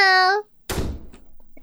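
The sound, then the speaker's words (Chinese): A single heavy, booming thud as a tyrannosaurus rams a wardrobe door, with a few faint knocks trailing after, preceded by a short sustained vocal tone. “原来他想要和大家一起玩，被拒绝在外的暴龙开始不断撞衣橱的门。”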